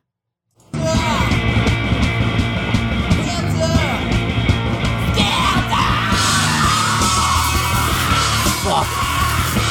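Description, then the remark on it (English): A loud, dense rock track with a raw screamed male vocal tearing over distorted guitars and pounding drums, kicking in abruptly after a brief silence and staying intense throughout. “he sounds so good on there. He's just losing it. And uh, yeah, that's like a scream.”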